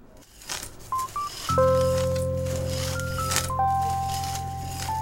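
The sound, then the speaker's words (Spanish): A hand fan is waved in a few quick papery swishes and flaps, set against a background of soft sustained musical tones and a low humming drone. “Estoy agitando un abanico porque hace mucho calor.”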